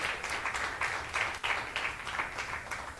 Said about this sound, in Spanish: Amén. Dale un aplauso más al Señor en esta mañana.